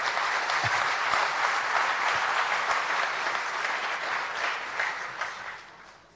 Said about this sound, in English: Round of applause, ladies.